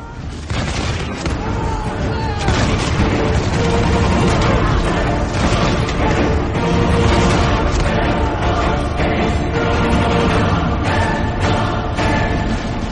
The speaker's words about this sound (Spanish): Los tiros se sucedieron una y otra vez